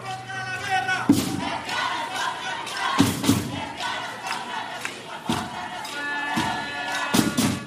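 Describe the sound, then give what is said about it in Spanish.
A crowd of more than 100 people from the LGBTI community chants "Lesbianas contra la guerra" in unison in San José, Costa Rica, on 9 January 2018, voices rising and falling in a steady rhythmic cadence, punctuated by loud accented shouts and thumps roughly every two seconds. “Eso fue el 9 de enero del 2018 en San José, Costa Rica, y lo que oyen es un grupo de más de 100 personas de la comunidad LGTBI. Están cantando Lesbianas contra la guerra,”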